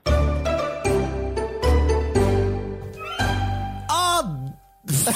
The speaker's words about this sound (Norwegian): Nå kjører jeg jingle, og så kommer Vida.